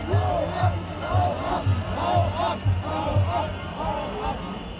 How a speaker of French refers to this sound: Pas question de laisser parler le ministre des Finances quand Christian Lindner s'approche du pupitre, la foule des manifestants lui hurle de dégager.